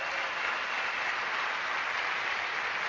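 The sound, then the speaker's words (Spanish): A crowd applauds steadily, many hands clapping in a dense, continuous wash of sound that holds an even loudness throughout, with no voices heard over it. “Les quiero pedir un aplauso donde estén por aquí.”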